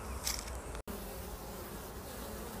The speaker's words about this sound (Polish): E, no pszczółki pracują. Ja nie wiem, czy to będzie słychać. Zaraz podejdę tutaj pod ul.